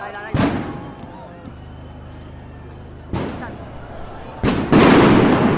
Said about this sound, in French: La place a disparu sous un nuage de lacrymo. Il y avait des explosions de tous les côtés.